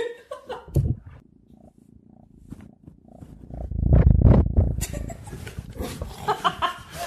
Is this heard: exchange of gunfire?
no